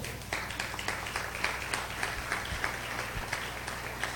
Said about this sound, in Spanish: Tenemos un Dios poderoso, le puede dar un aplauso.